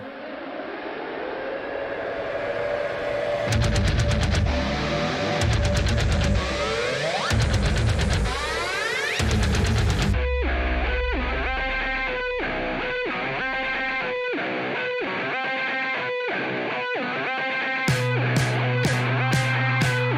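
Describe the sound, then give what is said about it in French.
Loud, heavily distorted rock music plays, the fourth single from a band's upcoming album: a noisy, effects-laden guitar wash gives way to pounding rhythmic riffs with sharp stabs near the end. No voices are heard. “Allez, on écoute ça ce matin, c'est parti”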